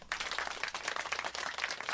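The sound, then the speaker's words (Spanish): A crowd applauds steadily, a dense, continuous patter of many hands clapping at once. It starts almost immediately and holds fairly loud throughout, with no voices over it. “Yo no entiendo por qué aplauden ante tal tragedia”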